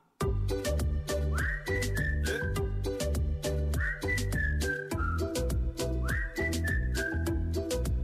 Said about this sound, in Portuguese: …, assobia para o lado.